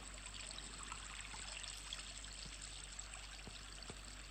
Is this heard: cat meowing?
no